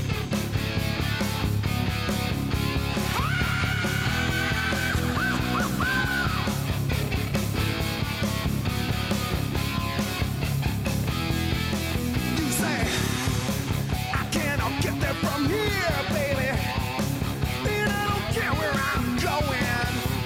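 A loud rock song driven by crunchy, distorted electric guitar over a steady, pounding beat, with a long sustained high note early on and wavering melodic lines later.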